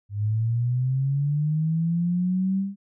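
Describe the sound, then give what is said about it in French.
A pure sine tone glides steadily upward in pitch from a low hum to a somewhat higher tone over about three seconds, clean and constant in loudness with no other sounds. “Donc, pour illustrer mon propos, entre 100 Hz et 200 Hz,”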